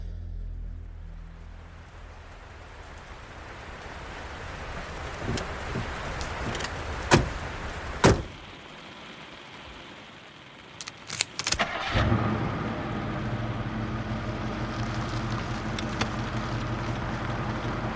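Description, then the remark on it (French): A car door shuts with a couple of solid thumps, then the engine cranks and turns over, settling into a steady engine rumble as the car drives off at night on country roads. No one speaks. “rentrent en voiture d'une soirée entre amis”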